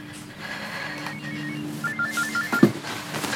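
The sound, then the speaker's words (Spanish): A mobile phone in a jacket pocket rings in a kitchen with a short electronic melody of quick, repeated beeping notes. It is moderately loud over a low steady hum and ends in a brief clunk. “Un móvil suena.”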